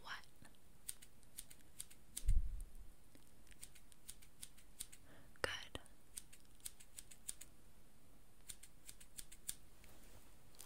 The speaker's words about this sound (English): I needed to trim your brows